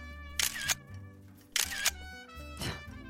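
Three sharp camera shutter clicks, each a quick double snap, spaced about a second apart over a steady tonal background of music, with no talking, as photos are taken of the food eaten that day.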